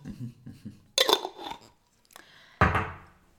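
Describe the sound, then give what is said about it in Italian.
A metal pot lid clanks twice, each hit sharp and ringing with a bright metallic tone, with softer rattling between and a faint murmur of voice at the start. “Il coperchio è questo.”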